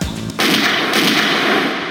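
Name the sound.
two gunshots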